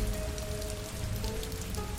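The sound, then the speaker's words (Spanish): Steady rain falls at night, pattering down in a dense, continuous hiss of drops, with a faint low hum running underneath throughout. No voices are heard. “La lluvia de esa noche y las altas horas que el reloj marcaba me obligó a hacer una parada en un motel a la orilla de la carretera, donde tuve que pasar la noche.”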